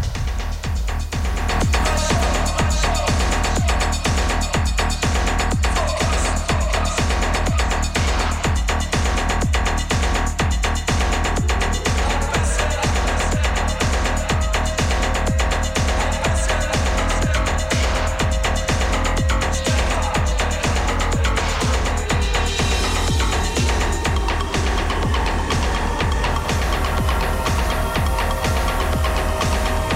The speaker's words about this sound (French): Et elle ajoute un fond sonore, le tapis Urgence.